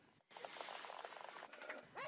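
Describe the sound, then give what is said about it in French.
A dog whimpers in a makeshift camp in the basement of an apartment building, a continuous stream of thin, high whines, ending with a couple of rising, pleading cries. No one speaks. “Dans le sous-sol de l'immeuble, un campement de fortune où elle vit avec ses filles et ses chiens.”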